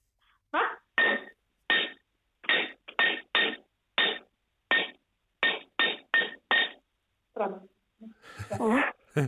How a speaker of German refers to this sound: So, jetzt hoffe ich, du hast auch ein bisschen was Brauchbares in der Küche gefunden zum Klopfen.